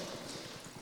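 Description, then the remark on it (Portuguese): Pure water pours steadily into a glass for drinking, a continuous splashing trickle with a faint rhythmic gurgle, moderately quiet, lasting just under a second with no voices. “Água pura.”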